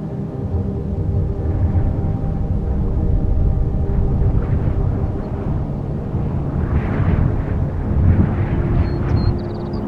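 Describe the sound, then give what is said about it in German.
Distant thunder rumbles low and continuously for about ten seconds, a deep, steady roll that swells slightly midway, with no voices present. “Der Himmel wird immer dunkler und in der Ferne hörst du ein Grollen.”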